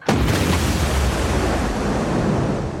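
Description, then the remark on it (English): A single shotgun blast erupts abruptly and loud, then rolls on as a heavy, sustained roar that barely fades over the next few seconds. No voices. “I pulled back the hammer of my shotgun and leveled it”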